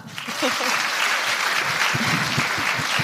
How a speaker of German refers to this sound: Ein Applaus